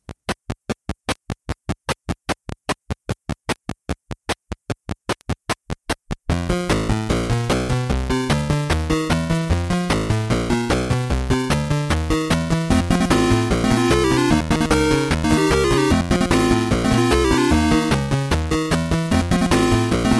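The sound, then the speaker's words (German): Video game theme music: about six seconds of sharp, evenly spaced ticks, then a loud, busy melodic tune with a steady beat and bright layered tones that carries on without any voices. “Aber damit ihr da auch mitreden könnt, hören wir einmal mal kurz rein in dieses Musikstück, denn es geht wirklich ins Ohr.”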